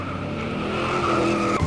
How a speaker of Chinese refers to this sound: 一辆汽车从后面飞驰而来。